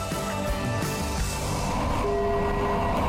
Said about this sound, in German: Krefeld, Endhaltestelle, Terminal, Stop. Dieser Zug endet hier. Bitte aussteigen.